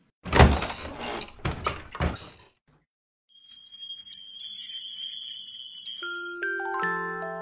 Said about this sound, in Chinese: 如果你愿意和我一起，那就请走过来，你只需要敲敲门。